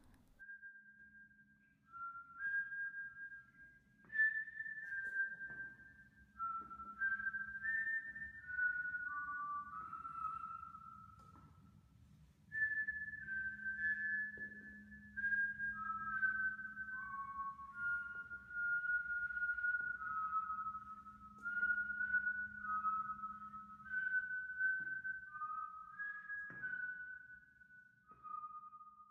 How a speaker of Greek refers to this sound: Καθίσαμε και περιμέναμε. Ακριβώς στις 3 και 3 ακούσαμε το σφύριγμα.